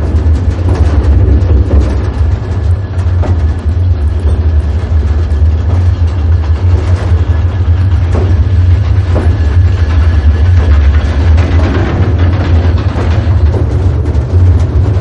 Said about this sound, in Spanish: Poco después van en la cabina de un tren de cremallera.